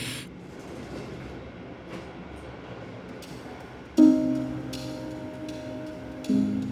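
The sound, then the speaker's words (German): The last train rolls into the main station shortly after one o'clock with a steady low rumble, then a loud tonal squeal of brakes or horn breaks in, fading and returning briefly near the end. “Der letzte Zug fährt in den Hauptbahnhof ein.”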